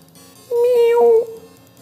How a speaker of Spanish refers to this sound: Matú, sé profesional y maulla.